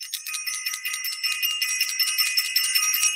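A high, bright bell, rung for Self Invested, rings continuously for a few seconds, its shimmering metallic tones pulsing in a rapid, steady rhythm. It's fairly loud, with no voices.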